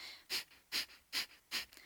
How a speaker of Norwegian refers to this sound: Vi har jo disse uh, litt mer litt sånn, eh, en, energet, altså sånn energien opp-pusteteknikkene, som f.eks. bastrika, kabalbati, der hvor det er mye fokus på det å presse lufta ut gjennom nesa.